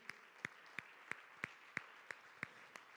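An audience, standing in place, claps together in worship of the Lord in a steady, even rhythm, about three sharp claps per second, over a soft wash of crowd noise.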